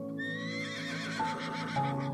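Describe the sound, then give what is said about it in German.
A black stallion standing in a niche of a round clearing enclosed by high rocks whinnies in a long, shrill, wavering neigh that rises and then trembles down, fairly loud, with no voices present. “Und ganz hinten, in einer Nische, steht etwas. Ein Pferd.”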